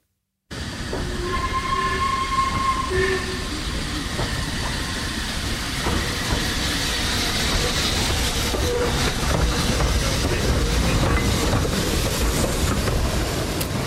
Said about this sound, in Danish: Ja, det er lyden af damppluk, det er et damplokomotiv.